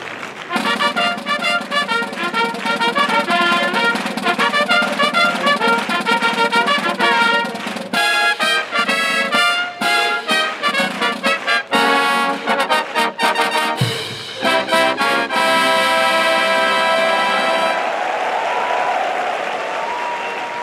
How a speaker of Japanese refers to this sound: 関西学院大学応援団総部吹奏楽部のファンファーレスターター台につきました阪神ジュベライルフィリーズのファンファーレです